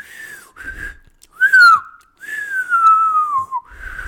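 A person whistles: a few short notes, then a sharp rising-and-falling tone and a long, slowly descending whistle, clear and fairly loud with no talking.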